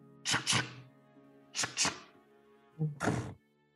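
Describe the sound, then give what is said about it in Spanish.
Heavy metallic clanks of elevator chains as the elevator lowers, coming in three paired bursts, each double clunk followed by a lingering ringing hum, steady, with no voices. “Escuchan las cadenas.”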